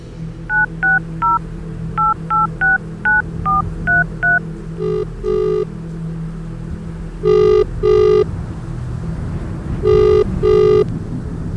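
A quick run of phone keypad dialing beeps, about ten short tones, as a man rings from his phone while sheltering from the rain under a shop in Assam, followed by three paired bursts of ringback tone, all over a steady low rumble of traffic or engine noise.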